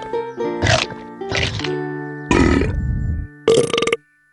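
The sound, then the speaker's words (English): A man's voice imitates a dinosaur roar in four loud, gravelly, forceful growls separated by short pauses, with a soft steady musical hum underneath; it is Daddy Pig being the dinosaur in a story. “I was being the dinosaur.”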